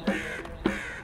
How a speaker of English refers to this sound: I wasn't going to say anything until I heard a bird chirp. I finally heard one, but it was pretty far away, pretty far down the road.